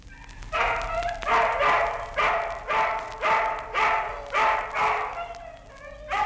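Hungry dogs bark over and over in a steady, insistent rhythm, loud, with about eight sharp yapping barks and no other sounds around them.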